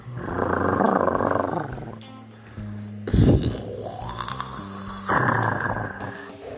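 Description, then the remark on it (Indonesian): The character Salamun growls repeatedly: a deep, rough growling in several loud, drawn-out bouts with short pauses between them, raspy and rumbling like a large animal. No one speaks. “Salamun berulang-ulang menggeram.”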